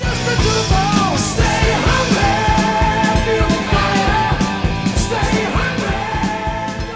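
Loud, dense hard rock plays continuously: distorted guitars and steady pounding drums drive a fast rhythm, with a strained, shouted vocal riding on top throughout.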